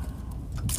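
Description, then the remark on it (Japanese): Someone bites into a hot steamed potato topped with butter and chews with moist, muffled mouth sounds, ending in a slightly louder wet bite. The sound is brief and quiet, with no talking. “バターをのっけてバターをのっけて食べてみようこのねえのきだけ的なものも、えー、同じ鍋の中でね、えー、ふかしているというか蒸していたんですけどあとりあえずこのじゃがいもちょっと待っていけるかな”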